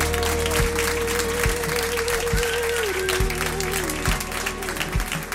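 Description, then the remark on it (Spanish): An audience at the Jarro Café in Madrid applauds guests from the insurance company Berti, with dense, steady clapping that lasts about five seconds at a fairly even loudness, with a held tone and occasional low thumps underneath. “Un aplauso para ellos también.”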